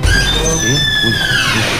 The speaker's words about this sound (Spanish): ya está abriendo la puerta.